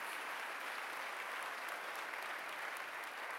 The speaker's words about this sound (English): Let's give our pastor one more hand clap for that wonderful service.